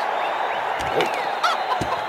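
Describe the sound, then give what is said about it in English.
A rooster clucks steadily, a busy run of short throaty calls with a few sharper bursts, over a constant background hum. “That rooster is really rattling tank springs.”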